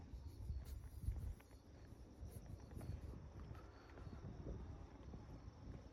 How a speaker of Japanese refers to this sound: おっとおっと風が風がきついですねえ